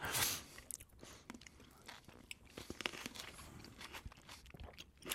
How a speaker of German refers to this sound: Ähm, hören Sie uns jeden, jede Woche beim Essen zu.